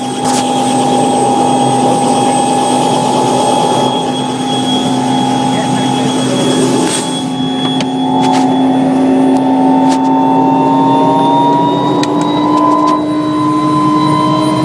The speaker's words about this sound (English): Alright, this is pretty crazy. I'm in a helicopter.